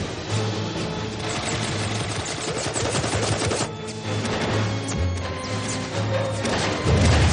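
A loud, rapid barrage of popping blasts as fireworks are fired from a pistol at a target, bursting in dense, rattling volleys for several seconds over a low droning tone, with no one speaking.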